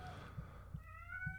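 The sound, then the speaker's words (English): A female pet cat cries with a long, drawn-out meow that rises and wavers, with faint low thumps underneath and no one speaking. “I have a cat crying.”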